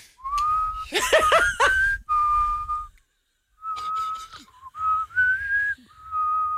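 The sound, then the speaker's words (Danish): Someone whistles through pursed lips in steady held notes, breaks off into a short burst of laughter, pauses briefly, then resumes with a few more sustained whistled tones, fairly loud. “det er meget godt, det der. Den er meget lille fløjte.”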